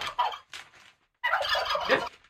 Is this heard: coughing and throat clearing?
no